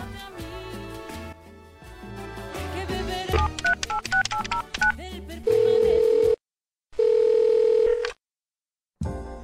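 A rapid string of telephone keypad tones beeps out a number for a call to the Anime Nexus phone line, followed by two longer steady ringback tones separated by silence, loud with no one speaking.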